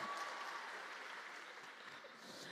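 Steady applause from an audience during a sermon, a dense crackle of many hands clapping at an even, sustained level throughout without any break.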